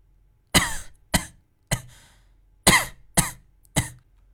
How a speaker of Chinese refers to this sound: 正说着，苏丹臣咳嗽了几声，一脸痛苦的睁开了眼。